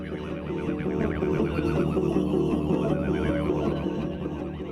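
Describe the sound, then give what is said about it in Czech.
Tuvan throat singing, with a steady, buzzing low drone and whistly overtones that waver and glide above it. The sound stays sustained and fairly loud throughout, with no talking. “To je klasika, no, vedelní zpěv tuvinců.”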